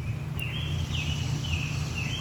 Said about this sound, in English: Chirree, chirree, chirree. That's an American robin.